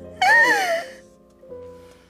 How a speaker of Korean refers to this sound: 한참 동안 숨쉬기도 힘들 만큼 꺽꺽대며 울었고 그러다 또 한 번 쓰러지고 말았습니다.